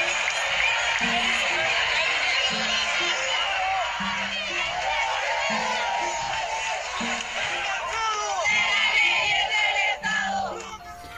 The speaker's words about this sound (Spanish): Bueno, como pueden escuchar de fondo, esta es una manifestación del 2013 en la que se exigía una educación estatal eh, como era antes.